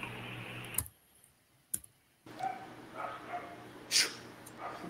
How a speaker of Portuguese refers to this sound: Enquanto tá tendo um pega de cachorro aqui na frente da casa do Rico, eu tô até com medo